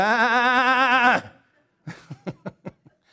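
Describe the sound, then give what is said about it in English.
A person imitates a hurting sheep lying on its back with a loud, quavering bleat lasting about a second, then after a short pause lets out a quick series of choppy laughs. “You know, if a sheep is hurting and it's on its back, what does that sheep do?”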